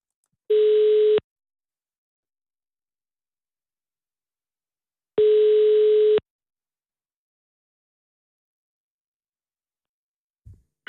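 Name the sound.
telephone call ringing tone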